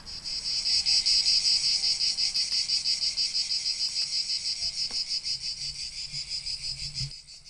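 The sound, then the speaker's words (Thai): A loud, continuous chorus of cicadas fills the forest with a high, buzzing drone that pulses rapidly and steadily, fading slightly toward the end. No one speaks. “ช่วงที่เจ้ากระจันขึ้นมาจากดินนะคะ มันจะขึ้นมาพร้อมๆ กันหลายๆ ตัว ทำให้ป่าช่วงนี้เต็มไปด้วยเจ้ากระจันมากมายละค่ะ ใครที่เคยเดินเข้าไปในป่าช่วงที่มีจักระจันเยอะๆนะคะ โอ้โห จะได้ยินเสียงนี้ดังไปทั่วป่าเลย”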